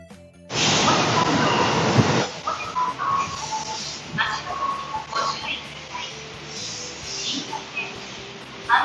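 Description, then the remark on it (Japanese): A subway train roars into an underground platform at a Tokyo subway station in Japan, a loud rushing burst that fades after a couple of seconds into quieter station ambience with faint tones and murmuring. “東京の地下鉄のある駅であ電車がやってきた”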